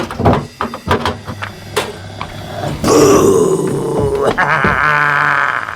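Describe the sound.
A few knocks and clatters as a person wearing a mask yanks open the door of a caravan, then a voice lets out a long, loud, guttural groan, imitating a shambling zombie.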